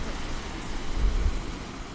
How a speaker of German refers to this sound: Hier rauschen die Wellen dagegen. Das ist was komplett anderes, als man das von so einem Plätscher-Lagunen aus anderen Atollen kennt.